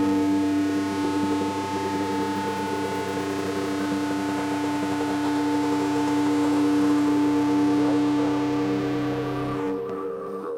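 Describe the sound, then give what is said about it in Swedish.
Long, loud guitar feedback drones with steady, distorted sustained tones layered in a thick harmonic wash, holding for about ten seconds before cutting off abruptly at the end of a song. “Ja, typ, typiskt avsluta med lång rundgång.”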